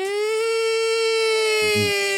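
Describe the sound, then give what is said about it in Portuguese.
A voice imitates a DJ siren with one long, steady, piercing high-pitched wail that holds for about two seconds, with a brief lower vocal sputter near the end before it cuts off. “Estamos a fazer uh, Sirenes DJ.”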